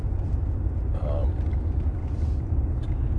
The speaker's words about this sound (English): back in Black Betty here. I'm going to keep the freaking truck running and I'm going to keep the heat on to warm my chilly body.